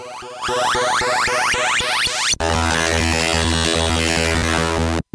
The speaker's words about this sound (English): at the very beginning of the clip when when Defender first comes on, it sounds like a robot voice, and I've always tried to decrypt what it's saying. Is it actually saying anything, or is it just a noise?